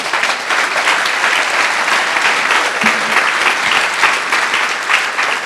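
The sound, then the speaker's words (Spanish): Sustained applause from a large crowd for the Lord Jesus, dense and steady for several seconds, a loud wash of many hands clapping at once. “Démosle un fuerte aplauso al Señor Jesús.”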